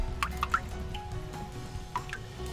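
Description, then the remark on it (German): Water draining rapidly from a canal lock chamber after the heavy lock gates close, with two motorboats and paddlers inside: a steady low rumble and hum under scattered echoing drips and gurgling plops, fairly quiet and continuous. “Die schweren Schleusentore werden hinter uns geschlossen und schon fällt das Wasser rasant.”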